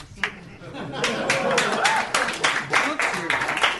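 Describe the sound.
A small group claps in a brisk, uneven burst of sharp hand slaps that swells after a lone early clap, with murmuring voices and chatter mixed underneath.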